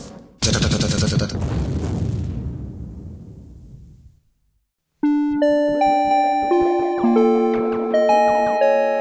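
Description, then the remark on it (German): A doorbell rings at an apartment door: first a loud, harsh buzzing burst of a few seconds that fades away, then after a pause a steady run of bright, ringing chime tones repeating in rhythm. No one speaks. “Als ich an der Tür geklingelt hatte und Sie mir öffneten”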